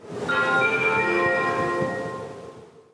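A BC Ferries pre-announcement chime, played before announcements on ferries operating around British Columbia, rings out, a few bright overlapping tones that swell and linger before fading, heard over a steady low rumble of engine and cabin noise. No one speaks.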